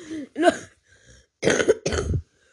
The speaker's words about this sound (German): ich muss husten.